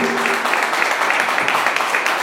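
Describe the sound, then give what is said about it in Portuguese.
A church audience applauds steadily during a service, many hands clapping in a dense, continuous patter at an even loudness, with a faint murmur of voices beneath. “Vale mais uma salva de palmas, não vale?”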